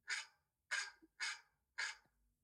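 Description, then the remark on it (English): Four sharp, evenly spaced dog barks from an iPhone alert tone, each a bright burst about half a second apart, clear with silence between them and no talking. “which is the iPhone dog bark for uh, just for, so people know what it is.”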